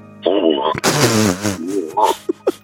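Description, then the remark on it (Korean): A person imitates a bullfrog: a few deep, droning croaks with a wavering pitch, loud, followed by two short grunting bursts. “황소 개구리 한번 들어볼까요?”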